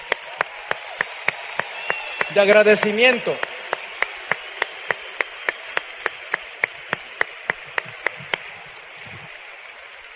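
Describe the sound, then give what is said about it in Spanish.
A crowd applauds steadily for about ten seconds, a dense wash of clapping with a faint regular beat running through it, while a voice briefly speaks near the start. “Y por ese solo hecho, ¿por qué no le damos un fuerte aplauso a la persona que te invitó?”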